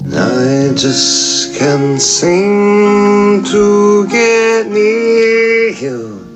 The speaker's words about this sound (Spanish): En este caso traemos algo en acústico.